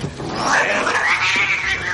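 A cat yowls loudly and continuously for about two seconds as it is put into a pressing machine, a wavering, drawn-out wail that rises and bends in pitch, with no voices alongside it.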